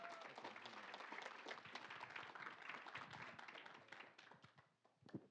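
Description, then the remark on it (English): A church audience applauds steadily for several seconds to welcome a man up to speak, a dense crowd of claps that tapers off near the end. “Let's clap and welcome him up.”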